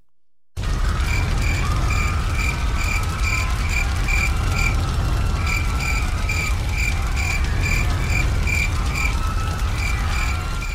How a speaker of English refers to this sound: Who'd have guessed crickets go to hell?